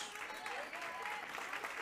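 A church audience applauds for God in a steady, dense wash of clapping that holds an even level throughout, with no clear individual claps standing out.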